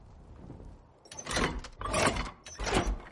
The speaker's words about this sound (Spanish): Abre la puerta de la cabaña.